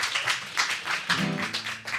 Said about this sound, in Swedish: Ja, en varm applåd